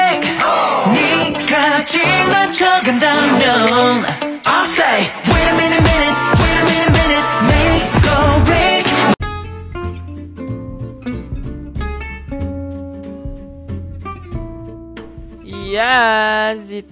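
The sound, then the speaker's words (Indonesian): An upbeat, cheerful K-pop song with singing over a dense, driving beat, shifting midway to a sparser, softer section with sustained tones before a bright vocal flourish near the end. “Ya, lagunya seperti yang kalian dengar itu adalah lagu yang sangat amat cheerful.”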